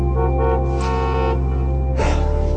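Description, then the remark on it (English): A bus's loud, sustained horn blares over a low engine rumble as the bus arrives, briefly breaking off and then sounding again about two seconds in. “Looks like your ride's here. Here comes the bus.”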